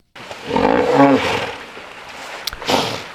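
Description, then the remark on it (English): Hippo wheeze-honks: a loud, rasping roar with a nasal, tonal honk at its peak, then a sharp snort and a second breathy wheeze. No one speaks. “He's just traveling the world listening for the different wheezes and honks from different animals to find out how they communicate.”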